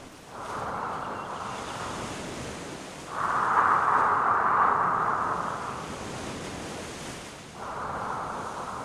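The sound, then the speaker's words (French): Ocean waves wash onto a beach in slow, broad surges, each swell rising and fading back into a steady soft hiss, three gentle rolls with no voices. “Entends-tu le bruit des vagues C'est un son si doux à l'oreille, tu ne trouves pas”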